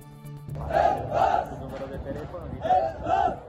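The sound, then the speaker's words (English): Dozens of migrants trapped on board a Norwegian-flagged rescue ship off the coast of Italy shout for help together in loud, rhythmic bursts, about four strong cries rising and falling over a steady murmur of voices. “Migrants on board a Norwegian flagged rescue ship off the coast of Italy shouting for help.”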